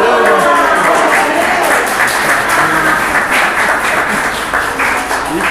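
A loud, sustained burst of audience applause, dense and steady clapping from many hands lasting several seconds, with faint voices mixed in.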